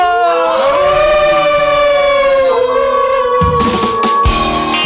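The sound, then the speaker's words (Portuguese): A wolf howl sound effect: several long overlapping tones that slide upward and then hold steady, loud and continuous, with a brief rough noisy burst near the end. “Vamos ao nosso uivo?”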